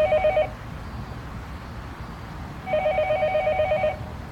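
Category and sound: signal or alarm, telephone ringing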